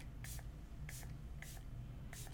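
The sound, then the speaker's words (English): Four short, airy spritzes from a facial mist spray bottle sprayed onto a woman's face, evenly spaced, each a soft hissing puff, over a low steady background hum. “spraying it, so she will spray Should I go on my first, face?”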